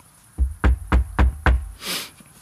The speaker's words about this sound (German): Weil du dann auf Holz geklopft hast, dass das so bleibt.